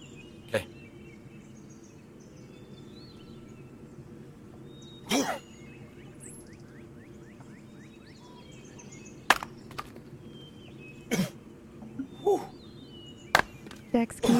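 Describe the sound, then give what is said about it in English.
Axe blows thud sharply into a tree trunk as a person chops at a tree to bring it down, about seven solid strikes at irregular intervals, spaced farther apart early and closer together near the end, over a quiet outdoor background. “Go ahead, take a couple of whacks.”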